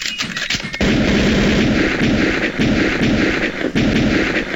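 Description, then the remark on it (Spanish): Heavy gunfire at a shooting range during a shooting course: after a brief quieter moment, a dense, continuous barrage of overlapping shots begins, with a few sharper cracks standing out, lasting to the end. “no se asusten, no se asusten. Estamos en un polígono, gente.”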